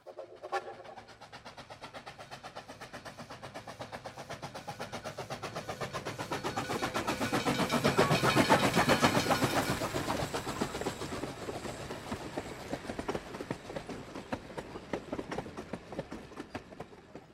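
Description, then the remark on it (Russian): A train approaches, its wheels clattering in a steady rhythm on the rails, swelling to a loud peak as it passes, then receding while the clicking continues. No voices. “А тут у вас в кинотеатре, пусть там сколько, 8 секунд, 10 секунд, на вас едет поезд.”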